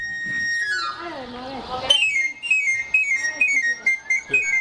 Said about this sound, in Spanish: tienes toda la razón, el afilador. Era como unas. la, flauta de pan que le llaman, ¿no? Sí. Sí, sí, sí, el afilador. Fíjate nada más cómo estábamos ya, ya acostumbrados a ese tipo de ruidos. El afilador.